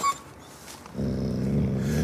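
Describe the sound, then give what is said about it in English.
A low, rumbling growl from a pet wolf named Fang starts about a second in and holds steadily to the end, fairly loud, with a faint brief tone at the very start and no talking. “Don't you pop your claws out on my wolf!”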